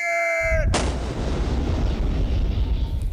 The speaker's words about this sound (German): Mehrere Stunden lang hallt Kanonendonner über die Küstengewässer. Gegen Abend löst sich das Gefecht auf. Keines der Schiffe ist gesunken.